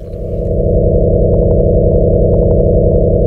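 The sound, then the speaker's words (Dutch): Sonified vibrations of a Sun-like star: a loud, steady, low droning hum of many layered tones, with faint flickering pulses shimmering above it and no voices. “Dit is een ster die trilt zoals onze zon.”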